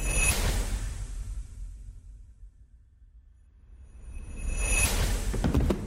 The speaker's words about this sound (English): That sound was a box full of stuff that the investigators thought would be beneficial to their investigation.